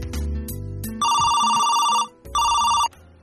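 A telephone rings twice during a call to Del Monte Sound, a sound equipment company, each ring a steady, bright electronic trill lasting about a second, separated by a short pause, loud and clear over a low background hum.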